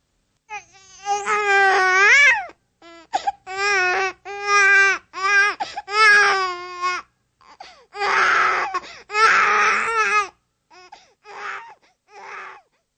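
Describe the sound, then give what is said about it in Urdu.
A baby cries and wails in loud bursts, with strained rising wails at first, then breathier sobbing gasps that fade into shorter whimpers near the end, with no one talking. “اب ظاہر ہے آپ نے فوراً اندازہ لگا لیا ہوگا کہ یہاں ایک بچہ ہے جو کہ بلک رہا ہے چلا رہا ہے لیکن کیا آپ اس بات کی بھی وضاحت کر سکتے ہیں کہ اس کا آپ کو فوراً ہی اندازہ کیوں ہو گیا”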